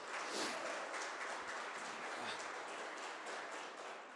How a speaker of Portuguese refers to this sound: Aplauda o Senhor bem alto, gente.